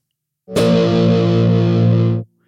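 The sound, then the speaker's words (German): A single loud electric guitar power chord of root, fifth and octave, played with added distortion, rings out, sustained evenly for nearly two seconds before being cut off abruptly, with no talking. “Jetzt mache ich euch noch ein bisschen Verzerrung drauf.”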